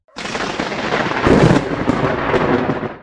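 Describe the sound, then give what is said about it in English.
A loud lightning-strike thunderclap bursts in sharply, then rolls on as a sustained crackling rumble with a heavier boom midway, filling the whole clip with no voices. “Lightning struck his ring, but he wasn't hurt in the least.”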